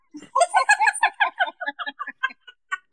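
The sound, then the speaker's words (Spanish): A person imitates a clucking hen, a rapid run of nasal, harmonic clucks that starts dense and loud, then spaces out and fades over a few seconds, heard alone. “A mí me gusta que me hagan como la gallina cuando la soplan por la nalga, así.”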